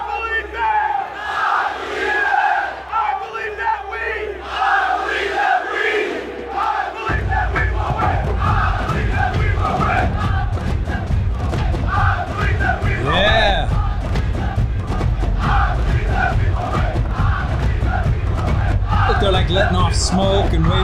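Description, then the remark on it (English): A massive stadium crowd at a World Cup match in the U.S. roars and yells continuously, the cheering swelling louder after a few seconds into a dense, rumbling wall of voices that stays loud throughout. “Such massive crowds too.”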